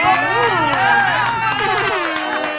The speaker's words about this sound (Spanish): Te amo, te amo. ¡Ay, un aplauso!